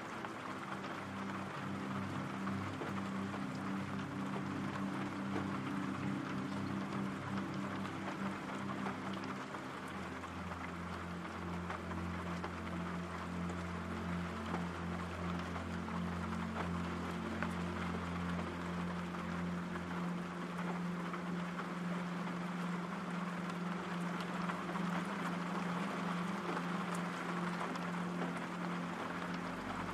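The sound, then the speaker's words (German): Steady rain hisses without pause, a dense, even patter across the whole clip, with a low droning hum underneath that shifts pitch slightly now and then. No one speaks. “Dein Atem geht ruhig, und gleichmäßig, während du den beruhigenden Regengeräuschen lauschst.”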